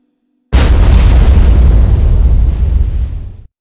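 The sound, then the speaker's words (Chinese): A loud explosion sound effect in a dramatized story about Wu Yunduo, depicting a blast that blew off his left wrist and injured his leg and toes. It bursts in suddenly, a dense full-spectrum roar with heavy low rumble that holds for about three seconds before fading slightly and cutting off. No speech. “这次手术不敢用麻醉，左手手腕炸断，右手膝盖以下炸劈一半，脚趾炸掉一半。”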